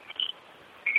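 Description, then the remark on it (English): Small bells worn by a hawk jingle in two short bursts, a bright, thin metallic ringing that comes briefly at first and returns a moment later, fairly soft with no voices, as the hawk follows the falconer along. “Oh, just kind of a, and uh, you know you can hear her bells in the background here.”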